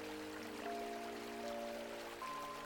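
A steady, gentle babble of river stream water runs continuously, soft, with a low background hum of sustained tones beneath it and no voices.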